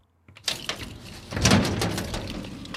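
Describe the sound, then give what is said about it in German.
The heavy door of the old Hermann Schacht briquette factory in Zeitz, Germany, opens with a sharp metallic clack followed by a long grinding, scraping rumble as it drags along, loud and echoing. “öffnet die Tür zur Brikettfabrik Hermann Schacht Zeitz.”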